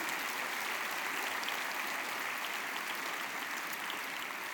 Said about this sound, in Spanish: Ahora sí, dale un fuerte, fuerte, fuerte aplauso a Dios.